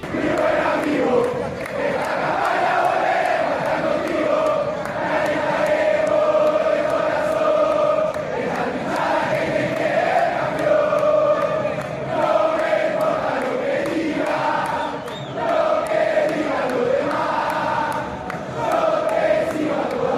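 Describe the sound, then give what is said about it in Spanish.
Football fans of various clubs chant a song in unison, a large crowd singing a steady rhythmic melody that carries loudly and continuously throughout, with the roar of many voices blending together. “Vamos a escuchar cómo la reversionaron las hinchadas de distintos clubes.”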